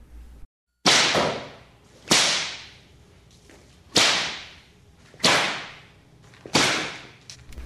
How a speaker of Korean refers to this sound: 대선의 분부로 소선이 채찍을 휘두르며 오공에게 덤벼들자 오공은 선가의 도술이 두려워 소선을 눈여겨보다가 종아리를 칠 낌새를 알아채고는 얼른 주문을 외워 종아리를 삽시간에 강철로 변하게 한 덕분에 서른 대를 다 맞고도 꿈쩍 하지 않았습니다.